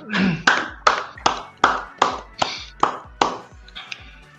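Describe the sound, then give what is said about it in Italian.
Applause from a single pair of hands: about ten sharp, even claps in a steady rhythm, each cracking loudly and fading quickly, with a brief murmur of voice at the start. “Momento applauso signore, applauso.”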